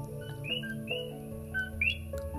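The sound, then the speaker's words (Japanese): Coqui frogs chirping at night: several short, high, upward-sliding whistled calls from more than one frog, overlapping at slightly different pitches above a steady low hum, with no talking. “えー、後期フロッグはこうやって情報を伝え合ってるって言われていますよね。”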